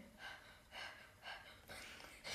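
Soft, airy breathing repeats in a steady rhythm, about five quick breaths in a couple of seconds, faint with no talking.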